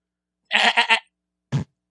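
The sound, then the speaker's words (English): A goat bleats loudly, a wavering, stuttering cry in three quick pulses, then after a brief pause one short, sharper bleat. No one speaks. “But as we ramp up the uh, funding goat,”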